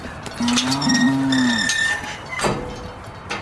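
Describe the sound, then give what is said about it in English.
A cow in Texas lets out a long, loud moo lasting over a second, its pitch rising then sliding down, followed by quieter outdoor rustling and a couple of brief thumps. “We had been searching for Powell for months a search that took us to multiple states and even involved an interesting run in with some cattle in Texas.”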